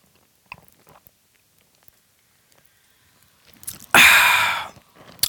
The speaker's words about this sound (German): Jetzt muss ich mal kurz ein Schlückchen trinken. Sekunde.